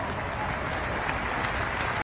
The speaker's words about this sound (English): Now, this rah, rah, rah, let's clap because someone said something that we agree with that didn't really address the actual question.